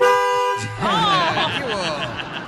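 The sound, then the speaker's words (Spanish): A single short, steady car horn blast at the start, bright, followed immediately by a person talking over a faint background. “Oigan, ahorita por si andan en la calle, nada más para darles un pitazo.”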